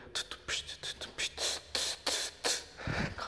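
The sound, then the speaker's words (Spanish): A voice beatboxes a drum pattern, making quick, breathy hissing hi-hat and snare-like bursts in a steady, rhythmic groove, fairly loud for a few seconds. “con el beatbox y todo.”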